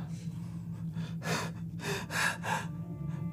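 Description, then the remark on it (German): A voice imitates a woman's quick, short gasping breaths: four sharp, breathy bursts in fairly close succession, with a low steady hum underneath. “Du hörst sie stoßatmen.”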